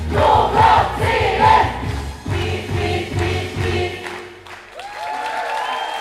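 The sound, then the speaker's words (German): A large theater audience cheers and applauds loudly, a dense roar of voices and clapping that swells in waves, then thins out as a sustained musical tone rises near the end. “Ähm, Beifall, Musik, ähm, viele Menschen nehme ich an, Publikum.”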